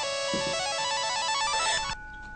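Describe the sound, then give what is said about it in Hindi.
A phone ringtone plays a bright, repeating electronic melody for about two seconds, loud, then cuts off abruptly into quiet background hum; an incoming call from a friend in Kathmandu. “तहु में तोहर एहन अवस्था के समय में कक्कर फोन एलै ए”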